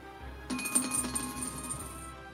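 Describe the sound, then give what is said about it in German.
Dice being rolled in a tabletop game clatter and tumble across a hard surface, landing on a 3. It is a quick burst of bright clicks and rattles lasting over a second before settling, fairly quiet with no voices. “und würfel eine 3.”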